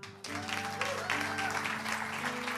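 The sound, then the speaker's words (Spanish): A crowd applauds steadily for the people who shared today, a dense, continuous wash of many hands clapping for the whole stretch, with sustained musical tones holding underneath. “Le damos más fuerte el aplauso a todas las personas que estuvieron compartiendo hoy.”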